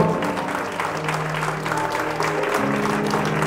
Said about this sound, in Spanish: Dale un aplauso fuerte a nuestro Señor.